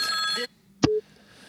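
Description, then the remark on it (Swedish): A telephone rings in a bright, buzzy burst lasting about half a second, then goes quiet before a sharp click and a brief low beep. “Nu Ringer det igen, fan i mig ja, då ringer vi.”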